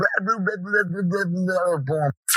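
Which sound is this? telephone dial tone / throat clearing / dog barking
dog barking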